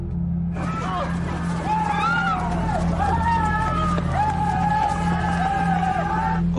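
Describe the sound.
A terrified crowd of citizens at the gates of the Forbidden City shouts and pleads for Emperor Qin of the Ming dynasty's protection. Many voices overlap in loud, wailing cries over a constant low rumble, and the clamor is sustained throughout.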